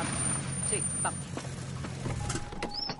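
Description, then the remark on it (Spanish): Lester's car engine rumbles low and steady as he pulls up and parks nearby, then cuts out; a thin, steady electronic tone and a few faint clicks follow. “Lester aparca cerca.”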